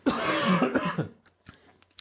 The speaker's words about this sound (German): Warte kurz, ich muss kurz husten.